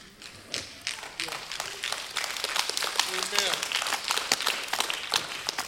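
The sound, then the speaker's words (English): Scattered, uneven sympathy clapping from a small crowd during a sermon, sparse individual claps building into a light patter, with faint voices murmuring underneath. “Sounds like a sympathy clap.”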